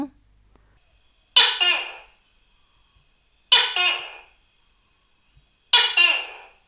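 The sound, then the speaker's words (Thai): A tokay gecko calls three times, loud, each harsh two-part croak evenly spaced about two seconds apart, with silence between the calls and no voices. “เสียงของตุ๊กแก่นั่นเอง”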